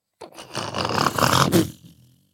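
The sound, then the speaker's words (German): A heavy portcullis grinds down with a rough, rumbling scrape for nearly two seconds, ending in a loud slam that quickly fades. No voices are heard. “Ihr hört auch, wie das Fallgitter zufällt.”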